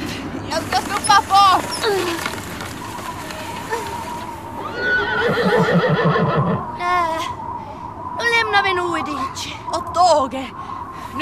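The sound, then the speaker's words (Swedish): A frightened horse shies, neighing and whinnying several times, loud, its shrill wavering calls rising and falling over a rough background rumble, with a hint of hoof clatter. “Pojken blev rädd och hästen skyggade.”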